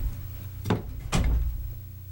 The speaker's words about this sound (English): we shut the door.